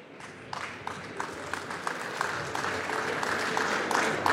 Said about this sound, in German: Zu Recht Applaus. Ich hoffe, es bleibt nicht beim Applaus.